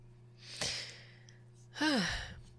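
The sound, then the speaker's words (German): A mock sniff voiced aloud: a brief breathy snuffle, then a louder nasal sniffling sound with a short falling whimper in it, like a playful imitation of sniffling. “Schnief.”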